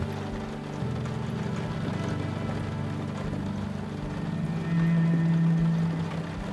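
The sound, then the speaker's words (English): Steady rain falls in a continuous hiss, joined by a low droning hum that swells louder for a stretch near the end. No one speaks. “Hear the natural pace of the rain as it changes in speed and weight.”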